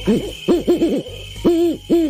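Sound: owl hooting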